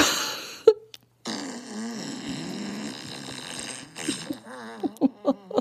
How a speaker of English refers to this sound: And then there is a fart board, and there's a four by two, four, six. There's 24 different farts. Are you ready? Okay. Here's Dirty Burrito.